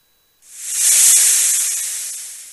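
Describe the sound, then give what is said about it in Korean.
A snake's long, sharp hiss starts after a brief silence, swells quickly to full strength, then slowly tapers off over about two seconds, with no voices present. “모세가 자신의 지팡이를 하나님의 말씀대로 땅에 던지자 지팡이가 곧 뱀으로 변하였습니다.”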